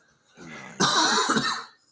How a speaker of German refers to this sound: ja, äh, komm, husten wir noch.